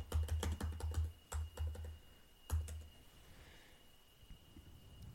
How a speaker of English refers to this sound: Um, typing noises.